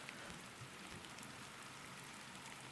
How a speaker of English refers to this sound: The rain's kind of relaxing, actually. It's got a rhythm to it. I could get used to this.